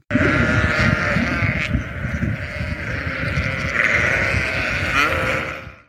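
A flock of sheep bleating together, many overlapping calls forming a dense, continuous chorus that stays loud throughout, with no talking.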